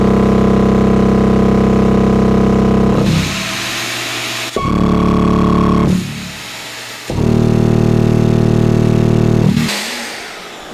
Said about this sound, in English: It'll be much better when you're not using the shop vac for that.